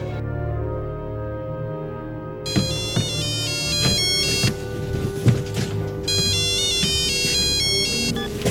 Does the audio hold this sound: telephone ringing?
yes